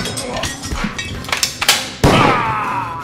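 sound effect, gunshot

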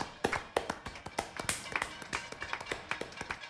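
crowd, people clapping hands

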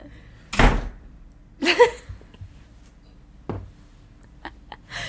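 household object, door slamming shut

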